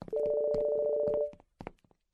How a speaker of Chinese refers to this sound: 就在地下的停车场里，可心的手机响了